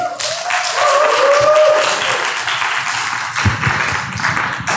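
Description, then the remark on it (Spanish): A crowd gives a steady round of welcoming applause for people following from home, dense clapping that holds loud for about five seconds, with a brief high cheer or whistle rising over it early on. “Muy bien, doy la bienvenida a las personas que por alguna situación no pueden venir y están en casa, Dios les bendiga, les damos un aplauso de bienvenida a ellos.”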